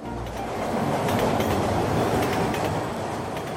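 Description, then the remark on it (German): A train carrying Jean-Claude Carrière to Spain rolls steadily along the rails, its wheels clattering in a dense, continuous rumble with faint rhythmic clicks, heard from inside the train, with no voices. “Im Zug fährt der bald 90-jährige Jean-Claude Carrière nach Spanien zum Dreh mit Filmemacher José Luis López Linares.”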